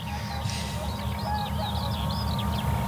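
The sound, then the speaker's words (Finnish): A Eurasian curlew calls in the morning with a string of rising, bubbling whistles that climb and fall in quick repeated loops, heard over a steady low rumble with no voices. “Kuovi, kuovi kuuluu ja kuovi on kuultu tänä aamuna tosi hienosti kyllä useamman kerran.”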